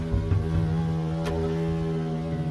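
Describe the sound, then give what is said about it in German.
A low, steady insect drone hums continuously for the whole stretch, an even buzzing with no voices over it, consistent with a hornet in flight, made by its wings beating at a very high frequency. “Auch Hummeln, Wespen und Hornissen brummen, summen.”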